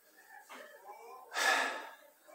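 human body sound, sneeze

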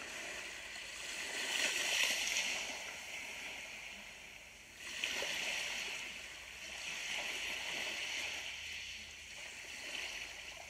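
nature, sea waves rushing

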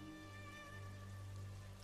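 nature, rain falling

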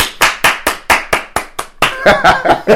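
human body sound, hands clapping

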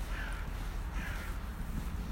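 bird, raven cawing

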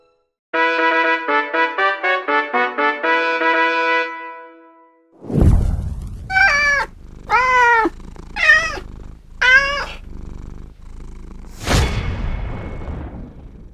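animal, cat meowing and purring

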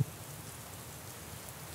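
nature, steady rain falling

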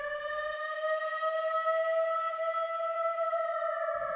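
signal or alarm, air-raid siren wailing

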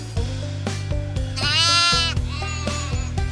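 animal, sheep bleating

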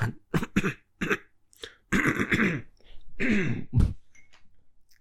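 human body sound, throat clearing

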